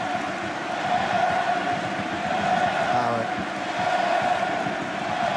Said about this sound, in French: Alors, on entend le stade.